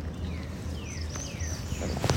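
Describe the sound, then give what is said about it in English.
A northern waterthrush sings a few thin, sliding whistled notes, faint, over a steady low outdoor rumble, with a few clicks near the end, recorded while birding in Prospect Park. “It's a northern water thrush.”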